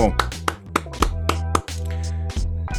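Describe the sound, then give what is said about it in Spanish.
Applause welcoming guests who are connecting to the show from Chile, in the form of steady rhythmic clapping: about six sharp claps at an even pace, sounding over a sustained low, humming musical tone. “quiero desear y recibir con un fuerte aplauso a los necesarios”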